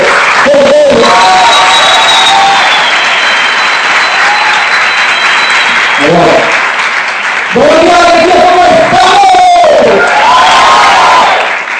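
A crowd breaks into loud, sustained applause with cheering and whoops to welcome the top 7 of the company in Colombia, dense clapping filling the whole stretch while excited shouts and yells rise above it in bursts.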